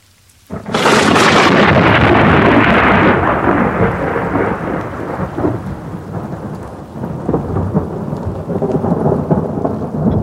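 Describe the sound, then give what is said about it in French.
A sudden, loud crack of thunder bursts in and rolls into a long rumble that slowly fades, while steady heavy rain keeps pouring throughout. No one speaks. “À cause des températures, il y aura des petites averses et de l'orage.”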